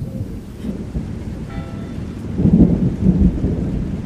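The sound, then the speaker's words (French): A thunderstorm with steady rain hissing throughout, while deep rolling thunder rumbles underneath and swells louder in the latter half before easing slightly. No voices. “Oh, voilà la pluie s'écrie Armand”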